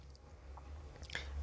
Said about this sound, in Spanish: Espérame, déjame tomar un trago de agua, amigo.